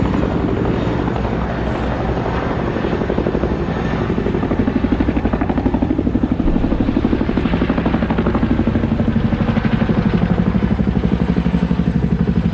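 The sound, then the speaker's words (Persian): A helicopter hovers one or two buildings away, picking people up from a building before flying off, its rotor blades chopping in a steady rapid pulse over a loud engine roar that swells slightly as it holds position. “انگار تو اون ساختمون هم آدم بود اول اونا رو برداشتن و دور شدن زامبیای جلو در انگار با شنیدن صدای هلیکوپتر به وجد اومده بودن”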